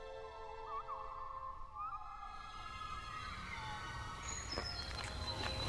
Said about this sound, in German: Was man jetzt da hört, di, di, de, de, de, de, de, de. Di, di, de, de, de, de. Wie, wie schön. Das ist Blaumeise.